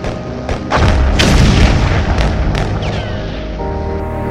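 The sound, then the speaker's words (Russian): A deep, heavy explosion of an arsenal in a fortress, blown up by wounded Soviet prisoners of war as troops stormed it, erupts after a brief pause and rolls into a sustained rumbling roar, punctuated by several sharp artillery booms and cracks; no one speaks. “Когда войска ворвались в крепость, оставшиеся раненые советские военнопленные взорвали арсенал, сами погибли и уничтожили значительные силы противника.”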